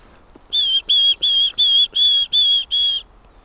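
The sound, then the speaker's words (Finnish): A wood warbler's piping song: seven clear, even whistled notes on a single pitch, spaced in a steady rhythm, loud against a quiet background. “Kyllä, mutta sillä on onneksi tämä toinenkin Ai niin. lauluversio, niin.”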